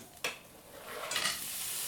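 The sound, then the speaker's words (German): Already-roasted pistachios are stirred around in a sizzling pan of an olive oil and butter mix to warm them briefly, a steady frying hiss with a sharp scrape near the start and another burst of stirring midway, with no talking. “die Pistazien. Die sind ja schon geröstet, die muss man also nur kurz erwärmen, das reicht eigentlich.”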